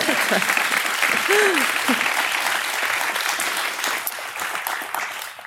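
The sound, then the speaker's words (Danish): A live audience at Fagfestivalen claps steadily for several seconds, a dense wash of applause that fades slightly toward the end, with a few brief voices cutting through near the start. “lige en hånd.”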